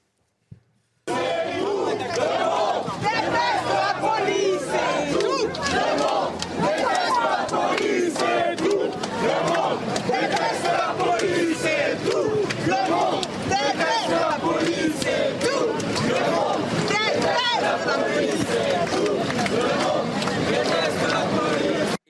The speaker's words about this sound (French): scandent tout le monde déteste la police